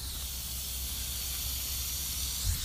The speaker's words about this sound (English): That's what the sprinklers sound like. What if I What if I just drop my phone just right into the sprinkler and just ends the podcast right there. Listen to these sprinklers.